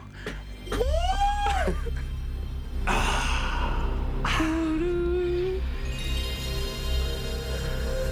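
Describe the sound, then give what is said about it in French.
A played-back sound effect of pleasure moaning: a rising, swooping vocal moan followed by breathy gasps and a held, wavering note, fairly loud, with no talking. “On se repasse le bruit du jouissement.”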